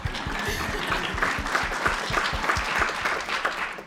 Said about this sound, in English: Oh, yeah, you can clap.